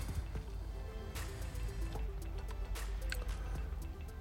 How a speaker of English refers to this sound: removes a plastic urinal full of piss, pours the piss into the pail